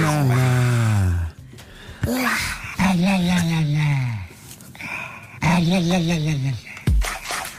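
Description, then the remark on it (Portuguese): A dog, Momo, a famous Russian dog known as the dog that goes 'la la la', vocalizes in drawn-out, sing-song tones that sound like 'la la la', three long warbling phrases with brief pauses between them, loud. “um tema musical que ele fez a partir dos sons de um famoso cão russo, o Momo, também conhecido como o cão que faz lá lá lá.”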